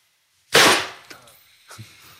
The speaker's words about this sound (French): Alors là, donc du coup, on a eu le petit bruit, c'est forcément l'airbag qui s'est déclenché.